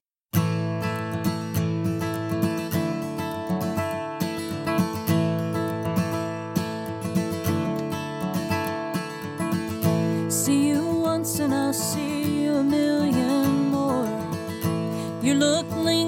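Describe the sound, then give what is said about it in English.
A full band plays a steady, rhythmic song while a man and a woman sing together in harmony, the mix loud throughout with denser vocal lines in the second half. “And going by again sounds like this.”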